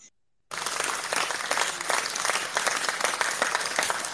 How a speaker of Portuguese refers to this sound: Aplausos, aplausos.